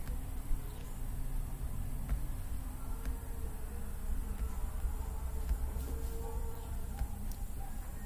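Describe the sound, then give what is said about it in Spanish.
A fly buzzes steadily for several seconds, a low continuous droning hum over faint background noise, with no one speaking. “entonces, ya me pinche, ay no, pinches moscas, se me atrasa una puta mosca”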